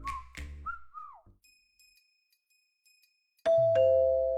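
A doorbell rings loudly near the end as someone presses it once, two chime notes struck in quick succession and left ringing. It follows a few whistle-like chirps and a stretch of faint, thin tones.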